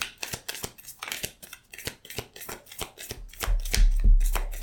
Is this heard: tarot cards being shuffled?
yes